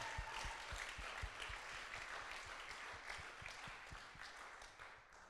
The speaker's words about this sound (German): Können wir dem Heiligen Geist mal einen riesigen Applaus geben, bitte? Dankeschön.